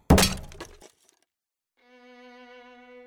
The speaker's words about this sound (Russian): «Тут нужен другой подход», – заметил сержант Колон, обрушивая на голову казначея табуретку.